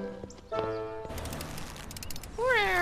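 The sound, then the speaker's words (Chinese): A kitten named Little Orange (小橘子) gives one high, wavering meow near the end, loud and clear, after a stretch of steady tones and scuffling noise. “你的小猫安然无恙。”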